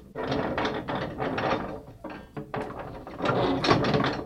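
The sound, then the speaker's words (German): Old tower clock gear shafts, part of a nearly 300-year-old system of rods and wheels on low-friction square iron, turning to drive both the upper and lower clock hands: a steady, rapid train of dry ratcheting clicks and grinding, briefly easing off midway before resuming, with no voices. “Nach fast 300 Jahren funktioniert das System aus Stangen und Rädern immer noch, dank Vierkanteisen mit geringer Reibung.”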